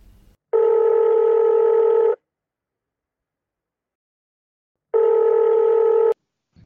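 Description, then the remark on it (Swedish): On an outgoing phone call, the line rings back twice with long steady electronic tones, each lasting about one and a half seconds, separated by a silent pause and ending in a click as the call connects. “så du ringde upp henne? Jag ringde och snackade med Yvonne.”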